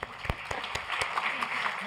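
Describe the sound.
An audience applauds briefly: a few sharp, distinct claps at first, then a denser patter of clapping, with some voices mixed in underneath.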